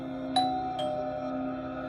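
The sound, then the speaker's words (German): An apartment doorbell rings twice in quick succession as a visitor rings again, a bright two-note chime whose tones hang and ring out over a steady hum, with no one speaking. “Die Bekannte findet das komisch und klingelt nochmal.”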